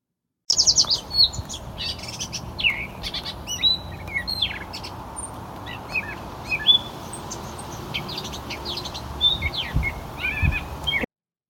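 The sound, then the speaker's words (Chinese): A gray catbird sings its own natural song, a long, rambling string of short squeaky chirps and whistled notes in an irregular rhythm, over a steady low background hiss, with no talking. “那我们可以顺便来听一下灰猫朝东的声音。那首先是他们自己原本的鸣唱声。”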